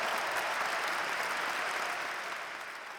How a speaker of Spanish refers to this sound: Sin más preámbulos, denle un fuerte aplauso